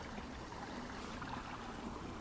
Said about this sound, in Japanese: 井戸を掘ってここに水を流したんですねでそれが先ほどのセミの小川あみたらし川から流れる小川に合流するようにしています